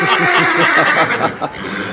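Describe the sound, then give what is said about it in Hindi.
A horse ridden by Bhima, weighed down by his weight, gives a loud whinny, a shaky, warbling neigh that rises and trembles for about two seconds before trailing off. “अरे बेचारे घोड़े को तो छोड़ दो भीम तुम्हारे भार से दबा जा रहा है”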